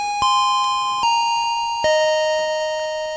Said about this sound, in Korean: 자, 골든벨이 울렸습니다.